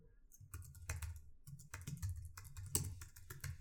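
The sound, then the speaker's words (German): Quick, uneven clicks of someone typing a password on a MacBook laptop keyboard after the screensaver came on, fairly quiet, with a few sharper keystrokes standing out. No one speaks. “Ähm, kurz mal Passwort eingeben.”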